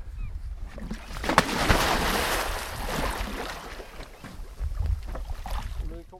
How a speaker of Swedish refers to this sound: Då tar vi premiärplumset här då.